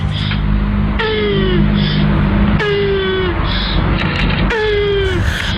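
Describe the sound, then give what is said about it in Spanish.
A land tortoise's mating vocalization: three loud, drawn-out groaning calls repeat at steady intervals, each a strained, slightly falling wail rich in harmonics, over a constant low rumble with no talking. “Tantas dudas, pero mira, atención, ¿querés escuchar el orgasmo de una tortuga de tierra? Mira, escucha esto.”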